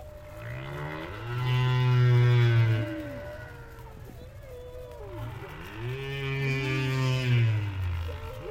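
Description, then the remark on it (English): Humpback whale song recorded underwater at Argus Bank, about 30 miles off the coast of Bermuda, where humpbacks gather and sing through the night: two long, loud moaning calls with rising and falling pitch sweeps, separated by a brief pause, over a steady low rumble. No voices. “About 30 miles off the coast of Bermuda, humpback whales gather at Argus Bank.”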